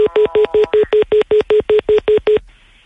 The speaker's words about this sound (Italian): Ah, ah sì. perché ho sentito... Eh, sì, è un, un bip bip.